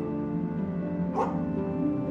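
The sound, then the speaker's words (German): A dog barks once in the distance at night in a city, a short, faint woof over a steady low droning hum, with no one speaking. “Weiter entfernt ist das Bellen eines Hundes zu hören.”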